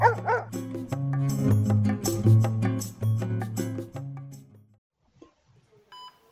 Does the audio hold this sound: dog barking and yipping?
yes